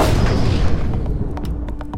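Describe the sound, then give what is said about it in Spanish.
A single loud revolver shot booms and rolls away in a long, decaying echo, followed by a few sharp metallic clicks near the end. “Las preguntas del universo las respondo a balazos.”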